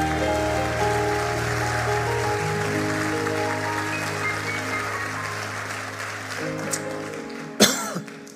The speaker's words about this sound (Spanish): Dele un aplauso fuerte al Señor.